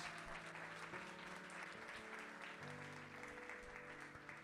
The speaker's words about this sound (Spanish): Si usted lo cree, déle un aplauso fuerte al Señor. Vamos.